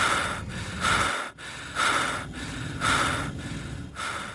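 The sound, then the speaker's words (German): Heavy, rhythmic panting breaths of a video game character out of breath after running, fairly loud, each huffing inhale and exhale following quickly on the last with a brief catch partway through; no talking. “Harry gaukelt dir zwar vor, dass er irgendwann dann außer Atem ist und ein bisschen schnaufen muss”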